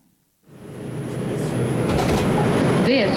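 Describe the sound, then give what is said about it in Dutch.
A Manhattan-bound 5 express subway train in New York roars in after a brief silence, its loud, steady rumble building, with a short metallic squeal of wheels rising near the end. “Een paar jaar geleden was ik nog in New York, dynamische stad met intrigerende geluiden, zoals in de metro”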